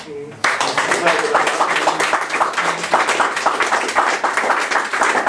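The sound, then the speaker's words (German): An audience breaks into sustained applause after a brief moment of quiet, a dense, steady crackle of many hands clapping with a few voices faintly mixed in. “Deshalb würde ich einfach mal klatschen.”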